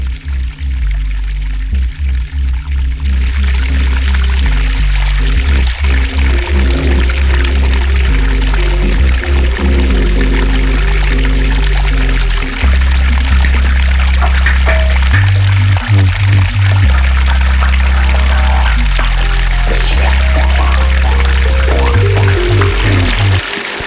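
River water flows steadily and loudly, a continuous rushing wash with deep gurgling churns shifting throughout, and no voices.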